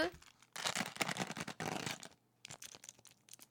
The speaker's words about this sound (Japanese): 冷やし中華もいただきますオクラを一緒に食べてほら氷の音聞こえる